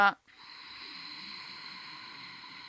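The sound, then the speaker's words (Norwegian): A steady breathy hiss of ujjayi yoga breathing, air drawn in and out through the nose with a sound made at the back of a narrowed throat, holds evenly for a few seconds after a brief voiced onset. “Og så lager man en slags sånn lyd baki halsen som minner litt om hvesing eller susing eller havets pust, ocean breath.”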